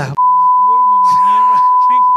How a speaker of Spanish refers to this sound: Una mala palabra favorita o que tú digas mucho. Se puede decir. Yo le pongo un pitito.